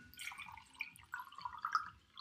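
Water pours into a glass, a soft bubbling gurgle that rises and wavers for about two seconds, fairly quiet and with no talking.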